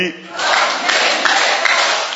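A large gathering breaks into loud, sustained applause, a dense wash of clapping hands filling the space with some cheering voices mixed in, steady and close for a couple of seconds.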